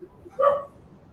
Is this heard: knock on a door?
no